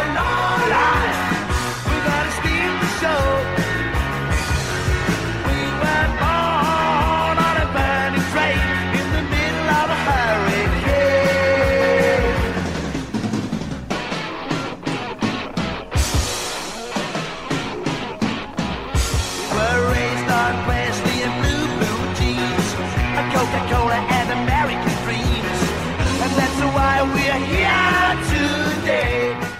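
A rock song plays loud and full for the whole stretch, dense band instrumentation that thins out briefly midway before surging back in.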